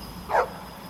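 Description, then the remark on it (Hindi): A single short dog bark rings out from an empty lane at night, around a quarter past ten. It is moderately loud, over a quiet background hiss, with no voices present. “तभी सामने वाली खाली गली से कुत्तों ने भौंकना शुरू कर दिया”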